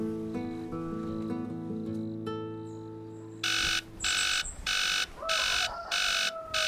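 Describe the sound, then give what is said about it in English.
An alarm clock goes off with loud, harsh beeping in about five evenly spaced bursts, coming in right after a stretch of soft, sustained musical tones. “No, it can't be morning. Your clock is definitely broken.”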